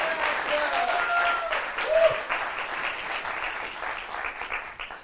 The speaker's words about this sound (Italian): Mi siederò qui in prima fila e lo vedrò con voi. Eh, un applauso